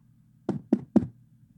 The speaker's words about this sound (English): It's a wonderful Wednesday morning. There's a knock on the door.